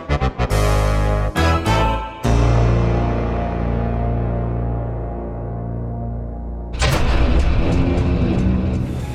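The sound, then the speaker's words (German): A steady, loud airplane engine drone heard inside the cabin hums with a deep rumble as the plane comes in to land in Nice, framed by a few sharp mechanical bursts at the start and a rush of broader roaring noise near the end. “Das ist ein Flugzeug, Holmes. Ein Zeug, das fliegt.”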